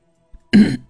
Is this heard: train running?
no